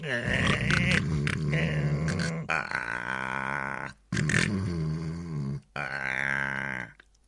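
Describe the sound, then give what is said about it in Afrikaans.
A voice imitates a frog snoring in a story: three long, rough, throaty snores, loud and steady, each separated by a brief pause, with a grunting, burp-like rasp. “Kraai terg en terg, maar Padda is so verveeld dat hy begin snork.”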